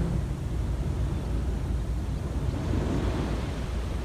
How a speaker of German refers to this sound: und das Meeresrauschen. Bringt dich ganz in den Moment. Du bist im Moment. konzentrierst dich nur auf das Rauschen des Meeres, auf die Wellen